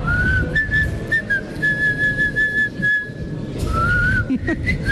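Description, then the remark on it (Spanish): A person whistles a bright, warbling birdlike melody like a goldfinch, sustained tones with quick trills, pausing briefly midway before resuming with a rising run, over a steady background rumble. “¿Sabes quién chifla todo el día? Y ahí sí como jilguerillo.”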